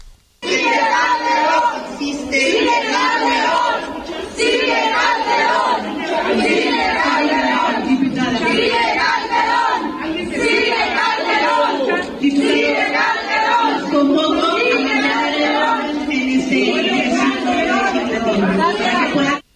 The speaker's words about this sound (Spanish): Esto que va a escuchar usted, que no me, explicó aquí José Luis Sánchez, son gritos de diputados eh, en los que en plena sesión, cuando se enteraron del fallo, comienzan a decir, sigue Calderón. Escuche usted.